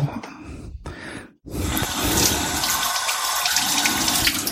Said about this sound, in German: Gut, dann werden wir jetzt nochmal die weiteren Zutaten zugeben. Ich denke, ich werde auch ein, ein kleines Schlückchen Wasser zugeben. So.